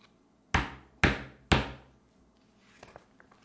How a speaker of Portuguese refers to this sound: Enquanto isso, o lobo foi pelo caminho mais curto até a casa da avó. Quando lá chegou, bateu na porta.